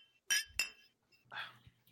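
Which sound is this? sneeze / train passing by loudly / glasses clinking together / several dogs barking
glasses clinking together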